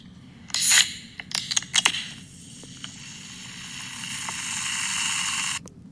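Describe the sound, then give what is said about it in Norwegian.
A sharp pop and hiss as an ice-cold cola can is cracked open, followed by a few small clicks and a steady fizzing that carries on for several seconds before stopping abruptly. “Oh, men lyden av en boks med leskende iskaldt drikke som åpnes, for meg er det lyden av opptur, altså.”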